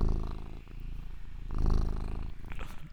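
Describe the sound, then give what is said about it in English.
A cat purrs steadily, a low rumbling drone with soft rhythmic pulses, swelling slightly louder midway through; no one speaks. “Just catch the purring, maybe.”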